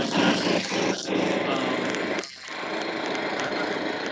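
A small engine drones steadily throughout, loud and continuous, with a brief dip in the middle before the motor's buzzing hum resumes: another lawnmower running in the background.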